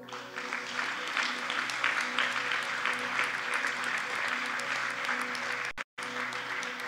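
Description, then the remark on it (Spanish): An audience at a Sunday church service applauds steadily as an ovation to God, many hands clapping in a dense, continuous patter with a low hum underneath, briefly cutting out near the end before resuming. “Démosle un aplauso.”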